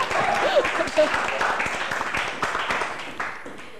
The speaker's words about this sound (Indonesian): oke berikan tepuk tangan dong ini